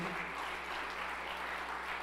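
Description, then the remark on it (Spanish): An audience applauds during a sermon, a dense, steady wash of many hands clapping together that holds at an even, fairly loud level throughout, with a faint low hum beneath it. “¿Cuántos le dan un aplauso fuerte?”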